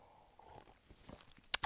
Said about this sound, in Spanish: Voy a tomar agua, perdón.